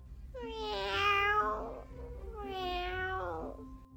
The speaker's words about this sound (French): Le ronronnement, le cri du chat.